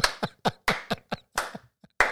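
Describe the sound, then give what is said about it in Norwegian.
Hands clap about nine times in a loose, uneven rhythm, applauding because he managed to land, each clap a sharp, bright smack of moderate loudness with nobody speaking, ending after a brief pause with one last clap. “Han klarte å lande. La oss klappe.”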